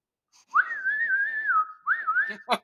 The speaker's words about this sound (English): We got a whistler.